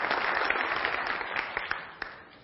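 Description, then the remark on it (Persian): A room full of people claps steadily to welcome a guest, a dense wash of overlapping hand claps with a few sharper individual claps standing out, fading slightly toward the end. “آقای دکتر هم پستاکشون رو ژاپن گذروندن در بحث نوروساینس و باعث افتخار تو جمعمون هستن تشویقشون بفرمایید”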